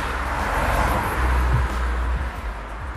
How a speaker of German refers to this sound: Ach, die Autos.